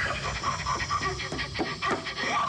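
Loud, ragged panting in quick, uneven bursts, breathy, repeating throughout with no clear words spoken, from a mostly offscreen scene in the film Alien as the alien creature approaches the terrified character Lambert.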